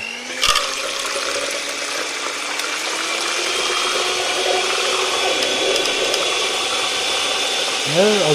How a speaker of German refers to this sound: Eine saubere, fettfreie, äh, ein sauberes, fettfreies Gefäß nehmen. Ne? Weil sonst ist das dasselbe Ergebnis wie mit dem Eigelb. Das wird nicht fest. Ne? Also ist wichtig. Sauber arbeiten und Strom an dem Mixer machen.